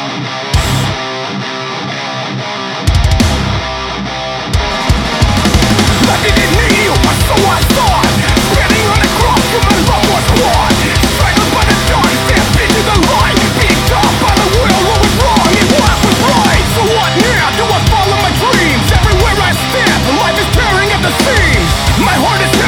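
A rock song with heavily distorted guitars opens with a brief sparse intro, then the full band crashes in and plays loud and dense throughout, with no talking.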